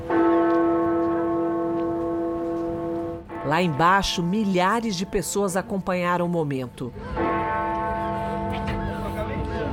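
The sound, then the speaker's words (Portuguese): Big Ben, the large clock tower bell in London, tolls loudly at 11 o'clock on a Sunday after five years out of service. It strikes 11 times to mark two minutes of remembrance silence. Its long humming resonance fills the opening seconds, then a voice speaks over the fading ring before the bell sounds again near the end. “Eram 11 horas em ponto quando os sinos começaram a tocar no domingo.”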